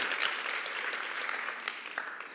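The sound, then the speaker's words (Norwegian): Steady audience applause fills the whole stretch, a dense patter of many hands clapping at moderate volume, sounding like many people rather than a few, after a speaker announces having become a parent a month earlier. “Ja, det fortjener en liten applaus.”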